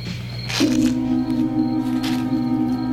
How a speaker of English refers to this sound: He stepped in dog shit and made a crunching noise.